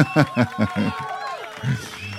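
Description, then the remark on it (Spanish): A crowd in Mérida, Yucatán gives an ovation, with rhythmic, chant-like bursts of voices over a continuous wash of cheering and some applause, loud, filling the whole moment. “Y bueno, aquí en Mérida, Yucatán, ahí está la, la ovación.”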